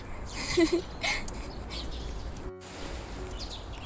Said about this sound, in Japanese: めちゃくちゃ鳥がにぎやか。あの山の方なのでまあ賑やかですよね鳥の声がいい環境だと思います